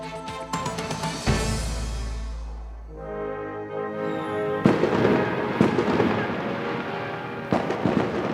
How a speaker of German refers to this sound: So dürfte es dieses Jahr am 1. August nicht tönen. Vielen Feuerwerkliebhaberinnen und Liebhaber dürfte nämlich die Trockenheit den Strich durch die Rechnung machen.